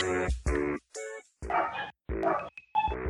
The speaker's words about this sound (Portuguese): Gente, vocês estão ouvindo o cachorro latir? Sim. Sim. Ai, meu Deus. Peraí, eu vou fechar minha janela.